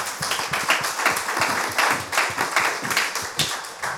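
A crowd applauds a panelist's take for about four seconds, many hands clapping in a dense, rapid patter with no voices standing out.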